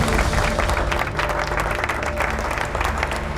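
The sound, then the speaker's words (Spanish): Lords and their wives, dressed in their best clothes at a feast, break into loud, spontaneous, sustained applause on seeing Seacat, many hands clapping densely and steadily for a few seconds without pause. “Al ver a Seacat, le ofrecieron un espontáneo aplauso.”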